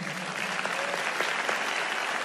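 A crowd of people clapping together in steady, sustained applause for the Lord, a dense crackle of many hands that fills the space evenly for a couple of seconds.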